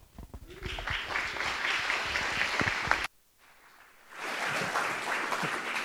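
A church audience bursts into steady, dense applause welcoming a speaker for about three seconds, cuts off abruptly into near silence, then a second wave of clapping rises and continues to the end.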